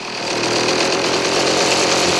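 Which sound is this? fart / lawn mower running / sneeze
lawn mower running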